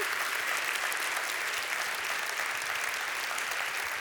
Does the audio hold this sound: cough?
no